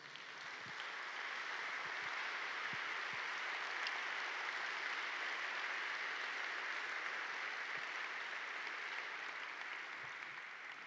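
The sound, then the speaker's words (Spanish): Sustained audience applause for Jesus during a sermon fills the space, a dense, steady wash of many hands clapping at even loudness for about ten seconds, with no one speaking over it. “Dale un fuerte aplauso a Jesús.”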